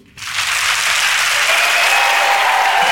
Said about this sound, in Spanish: voy a pedirles un aplauso para mis invitados al podcast de hoy, con los que vamos a aprender muchísimo sobre dermocosmética para hombre y mujer. Así que a ver cómo suena ese aplauso Madrid.